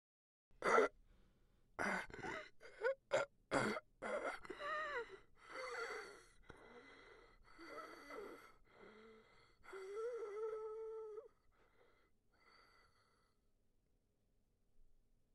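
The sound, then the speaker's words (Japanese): Sharp, ragged gasps and strained breaths give way to drawn-out, pained groans heard from behind an office door, wavering in pitch, then growing weaker and fading into near silence by the end. “朝7時、いつも通り会社に着くと、事務所の扉の向こうから苦しげなうめき声が聞こえた。”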